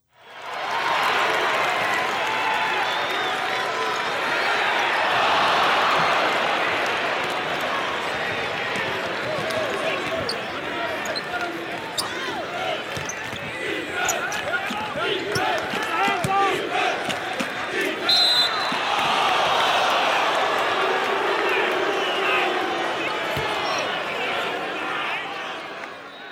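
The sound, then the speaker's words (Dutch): A large crowd roars and chatters continuously, while a basketball bounces repeatedly on the court and shoes squeak amid sharp shouts and cheers. “Maar volgens mij eh, zou het toch heel mooi zijn als we binnenkort weer, weer eens een keer op die tribune kunnen zitten en het, en mee kunnen”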